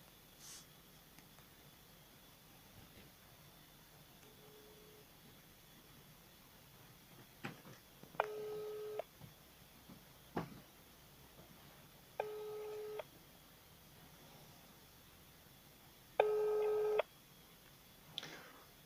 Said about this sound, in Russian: Так, теперь вот вообще не берут трубку.